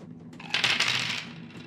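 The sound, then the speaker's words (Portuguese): A short rattling clatter of dice rolled across a hard surface for an initiative test in a game, with bright clicking taps bunched over about half a second before settling. No talking is heard. “Quem tirar o maior número do dado começa.”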